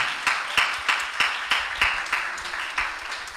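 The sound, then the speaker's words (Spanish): An audience claps for Christ together in a steady, even rhythm, roughly three claps per second, the sound full with a wash of crowd noise between beats. “Apláudale otra vez a Cristo, despiértese, gócese.”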